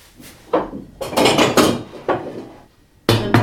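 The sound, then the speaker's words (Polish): A cooking pot is taken out with a few loud knocks and scraping clatter, then a final metallic clunk with a brief ringing tone. No one speaks. “Zaraz wezmę sobie garnek.”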